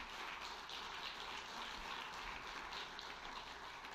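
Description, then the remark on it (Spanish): An audience applauds steadily for about four seconds, a dense wash of many hands clapping at an even, sustained level with no individual claps standing out and no talking, giving applause to the Lord during a sermon. “Sí, dele el aplauso al Señor.”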